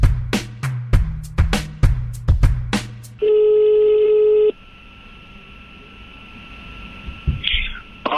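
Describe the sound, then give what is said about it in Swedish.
A rapid series of telephone dialing beeps as a call is placed to Glenn Strömberg, followed by a steady electronic ringing tone that cuts off, leaving a faint line hum; sounds clear. “Så vi har fått möjlighet att ringa upp Glenn och höra vad han säger om det och ja, prata inför helgens matcher och även se om han har några, några speltips.”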